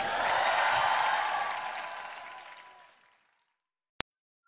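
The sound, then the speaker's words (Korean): An audience claps together in praise to the God of victory, a dense, sustained burst of applause that gradually thins and fades out over about three seconds, followed by a brief sharp click. “승리 주신 하나님께 승리의 하나님께 큰 박수를 한번 올려드립니다”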